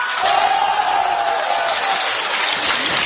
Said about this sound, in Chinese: 那同意他是不男不女的，呐喊声有多少呢？